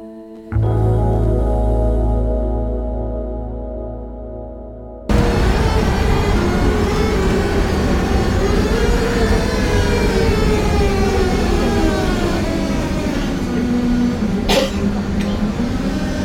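Prague tram ambience: a steady humming tone for a few seconds, then a loud, continuous rolling rumble with whining electric motor tones that slowly rise and fall.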